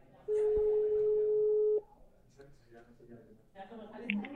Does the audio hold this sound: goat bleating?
no